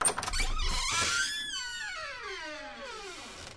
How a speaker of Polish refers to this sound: Dźwięk no, otwieranych drzwi.